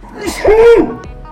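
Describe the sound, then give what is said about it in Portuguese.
A single sneeze: a quick breathy intake bursting into a short, voiced "choo" that rises and falls before cutting off, with faint background noise afterward. “Saúde.”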